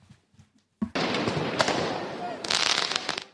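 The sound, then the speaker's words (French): Firework mortar shots fired at police during street riots at Place Bellecour in Lyon, France, after the French team's defeat: a sudden loud bang after a brief low murmur, then a sustained roar of crackling blasts and hissing bursts, with sharp pops growing denser toward the end. “Des tirs de mortier, des jets de projectiles sur les forces de l'ordre.”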